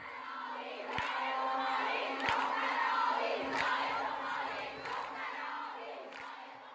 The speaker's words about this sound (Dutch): De vrouwen supporten hun nationale team en roepen de naam van het meisje in het blauw.